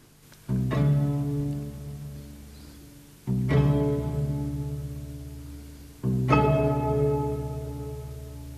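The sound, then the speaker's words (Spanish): String instruments play three loud, resonant chords about three seconds apart, each struck sharply and left to ring and fade slowly, imitating the evening Ave María church bell at the opening of Boccherini's string quintet of night music for the streets of Madrid, composed in 1780. “Aquí está reproduciendo Boccherini instrumentos de cuerda la campana que toca por la noche, ¿no?”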